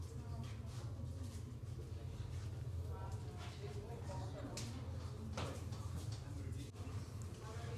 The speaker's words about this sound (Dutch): De deur gaat open. We betreden de ruimte van de hoofdshow van het Spookslot.